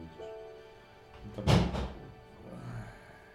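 A heavy clothes iron drops to the floor with a loud thump, followed a moment later by a smaller knock as it settles, then quiet.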